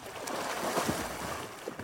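Steady splashing and sloshing of water as people swim in the clear Lake Wakapito, New Zealand, with a constant airy hiss behind it and a few brief louder splashes; no one speaks.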